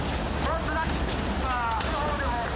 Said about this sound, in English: So the uh, photographer, you hear in the background, he's getting really excited. Um, sees he wonders, you know, seeing the water flowing into his path.